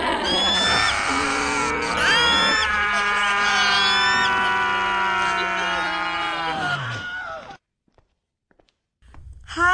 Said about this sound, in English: And inhale. And scream.